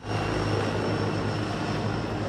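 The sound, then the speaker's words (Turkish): Attack helicopters fly over the Kaş–Meis area of the Eastern Mediterranean, where Turkish and Greek attack boats faced off, a loud, steady roar of engines and rotors with a low humming drone that holds constant throughout, with no voices. “Türk ve Yunan hücum botları Kaş-Meis hattında karşı karşıya geldi bölgede atak helikopterleri uçtu.”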